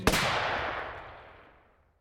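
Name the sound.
gunshot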